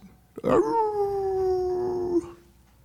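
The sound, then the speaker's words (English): A person lets out a single long, loud howl imitating a siren at a pet turtle, a steady wailing tone that slides gently downward for nearly two seconds before cutting off, with no other talking. “are you gonna you gonna howl for that?”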